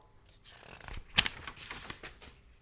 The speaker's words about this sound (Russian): Ну, давайте вот я сейчас возьму книгу, и сейчас, сейчас я перелистну страницу. Вот, я перелистнул страницу, да, то есть я читаю, читаю, читаю,